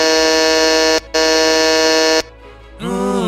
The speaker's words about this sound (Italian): Hanno suonato il citofono!